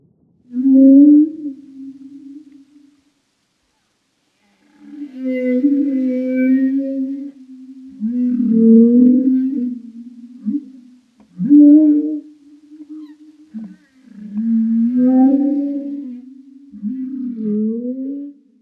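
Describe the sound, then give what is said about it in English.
Humpback whale calls moan and groan in long tonal phrases, sliding and wavering with harmonics, separated by brief pauses, loud with no other sounds around them. “Humpback whales are very vocal and their vocalizations fall into one of two categories song and non song calls.”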